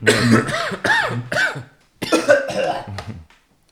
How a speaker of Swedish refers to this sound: Jag har dynghosta, så jag kommer sabba lite. Du får hosta ur micken då.